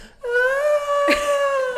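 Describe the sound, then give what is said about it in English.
A voice imitates a cheesy slow-motion movie scream, mimicking a film character slipping on a rolling rock: one loud, drawn-out wail held at a steady, slightly falling pitch for over a second and a half, broken by a brief breathy catch midway. “like the, the, the cheesiest it's, scream it's in the world it's just cheesy it's like so slow-mo drawn out”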